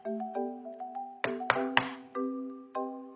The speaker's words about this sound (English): She went up and knocked on the door.